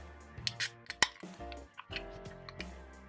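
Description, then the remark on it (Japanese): A can of Yebisu beer, very cold, being opened to drink: a few sharp metallic clicks and a crisp snap with a short fizzy burst, set against a quiet, steady low hum. “この音ですよねいつ聞いてもいいですではいただきます最初の一口ですよね。”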